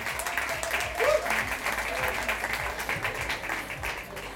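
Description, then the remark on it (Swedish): Steady audience applause welcoming panelists from Universal Music, Jubel, United Screams and Blank Music onto the stage for a talk on music industry trends, a dense wash of many hands clapping at an even level throughout, with a faint murmur of voices mixed in. “Bra, ni förstod att ni skulle ge dem en applåd.”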